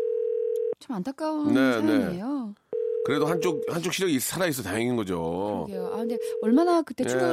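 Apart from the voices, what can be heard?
telephone dial tone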